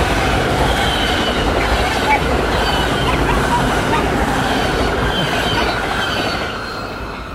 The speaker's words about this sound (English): That was a train.